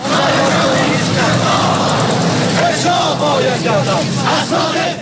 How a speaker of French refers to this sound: manifestation d'étudiants iraniens.